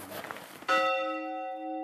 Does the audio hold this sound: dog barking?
no